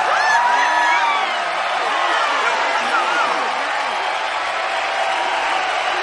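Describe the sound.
The audience at the North Shore school winter talent show cheers and whoops loudly for six seconds, a dense steady roar of many voices with high, rising whoops and shouts cutting through, strongest in the first second.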